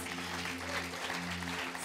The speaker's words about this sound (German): Und ich möchte auch nochmal Loop herzlich willkommen heißen. Hey Loop, schön, dass ihr dabei seid. Online, wenn ihr, gebt ihr nochmal einen riesigen Applaus.